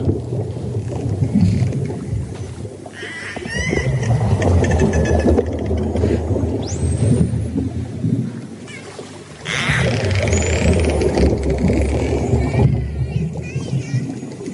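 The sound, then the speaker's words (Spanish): Underwater whale song: long, eerie calls and rising whistles drift over a deep, steady rumble of ocean noise, with no voices present. “El sonido de las ballenas, ¿sabes?”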